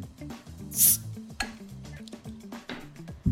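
A metallic scrape and a sharp pop as a Paulaner beer bottle cap, held up to a microphone, is pried off with a pocketknife, followed by a brief fizzy hiss, over a low background hum with faint clinks.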